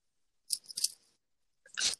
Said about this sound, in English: Sorry, I'm typing up on my computer all our lineups um, as I talk.